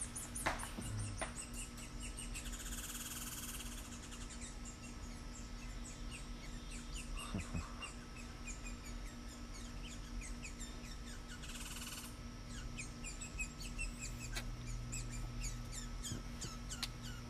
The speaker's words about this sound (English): Is that a squirrel making that? Yeah, warble sound. Warble, warble.